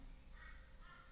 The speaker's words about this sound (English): Uh, can you hear the crows in the background?